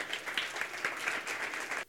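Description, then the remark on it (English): A crowd applauds steadily for people being called up to the front, a dense wash of many hands clapping at once, fairly loud and sustained for a couple of seconds before cutting off abruptly. “That was a great applause.”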